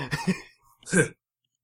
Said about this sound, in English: Gotta clear my throat here.